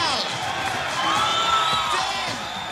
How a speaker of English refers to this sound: She makes her way to the main ballroom floor, where an enthusiastic crowd of mostly black and brown faces with the biggest smiles size her up, cheer her on, and sing her praises.